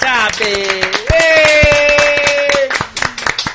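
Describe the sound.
A small group claps in quick, uneven bursts for a few seconds, fairly loud, applauding the woman who cooked the chorizo, while voices cheer and call out over the clapping.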